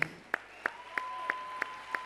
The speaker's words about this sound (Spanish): Un aplauso para él.